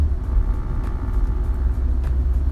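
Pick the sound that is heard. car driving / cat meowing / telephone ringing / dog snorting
car driving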